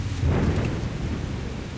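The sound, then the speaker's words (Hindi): A deep rumble of thunder rolls through sudden, heavy rain in a storm with lightning, swelling early and then easing into a sustained low roar with a dense hiss of rainfall throughout. “तभी अचानक तेज़ बारिश शुरू हो गई और बादल गरजने के साथ साथ बिजली भी चमकने लगी”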